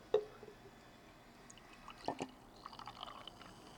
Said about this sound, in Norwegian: Skal vi se, skal jeg helle oppi da? Vil du ha, skal jeg helle oppi glasset ditt først? Okay, okay, okay. ok, her kommer lyden av den.